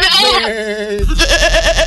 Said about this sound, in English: well, we can hear we can hear the goats